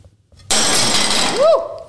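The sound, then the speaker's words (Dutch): A plate is thrown down and smashes with a sudden loud crash, followed by a bright scatter of shards and a ringing, wobbling tone as a piece spins and settles. “voor eh, het het kapotgooien van je bord”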